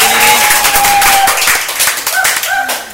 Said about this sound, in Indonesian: Tepuk tangan dulu buat teman-teman kita di sini.